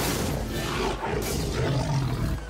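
A lion roars in a scene from the film The Ghost in the Darkness: one long, rough, rumbling growl with deep low grunts swelling and ebbing throughout, loud and continuous with no talking over it.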